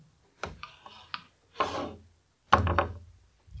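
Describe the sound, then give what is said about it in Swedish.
Dice clatter across a hard tabletop in a few quick rattling bursts, each a cluster of sharp clicks and tumbles, moderately loud, with brief pauses between throws. “Slå tärning.”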